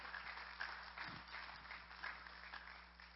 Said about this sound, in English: If you guys could come join us, could you give them a round of applause as they make their way up here?